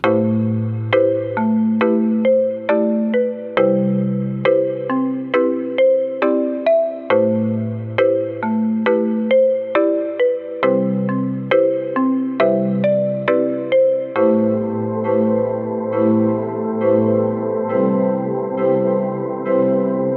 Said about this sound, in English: another Rhodes collection, but after listening to some of the interesting blended presets and soundscapes